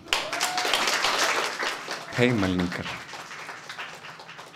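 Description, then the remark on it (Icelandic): An audience claps steadily in a dense wash of applause, with a single voice briefly calling out over it partway through. “Gjóðu hann um gott klapp.”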